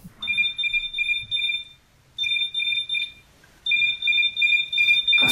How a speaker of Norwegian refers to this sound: Den heter Matt Alarm Clock, og det er en app som du må løse matteoppgaver, altså ligninger, for å få, musikken, eller så få lyden til å skrus av.